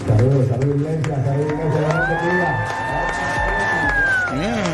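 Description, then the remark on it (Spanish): A large crowd in a church roars with cheers and screams in an ovation as Daddy Yankee enters the hall, many voices overlapping loudly and continuously, while one shrill, sustained scream rises above the din for a few seconds. “Mira, escucha eh, la ovación con la que reciben a Dari Yankee cuando entra al salón.”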